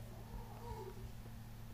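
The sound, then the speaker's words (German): A pet tomcat, worked up early in the morning, makes a few excited, wavering meow-like cries, pitched mid-range and somewhat faint, over a steady low hum with no talking. “aber ja, mein Kater hat seine fünf Minuten.”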